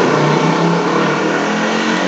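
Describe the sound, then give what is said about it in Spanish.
A loud, steady engine roar fills the whole moment, a motorcycle droning as it passes, with no talking over it. “Esto, disculpen ustedes el ruido de una moto que acaba de pasar,”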